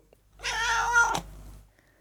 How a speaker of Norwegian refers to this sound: Mjau, mjau, mjau.